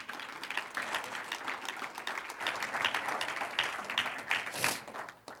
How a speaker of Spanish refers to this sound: Un aplauso al que vive.